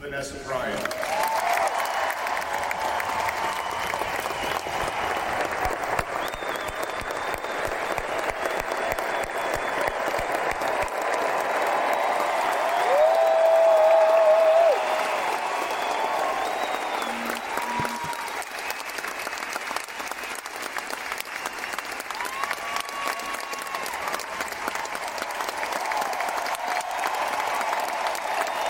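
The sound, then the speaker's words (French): Thunderous applause from a large crowd of fans welcoming Vanessa, Kobe's widow, a dense, steady roar of clapping that fills the whole stretch, with occasional cheers and whistles rising above it. “Les fans l'accueillent donc avec un véritable tonnerre d'applaudissements.”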